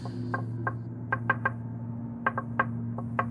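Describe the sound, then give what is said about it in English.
A series of light, irregular knocks, some in quick pairs, tapping against a door over a steady low electrical hum, with no voices. “We'd hear knocking at the door more regularly, as well as tapping on the windows.”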